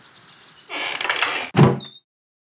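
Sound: door being closed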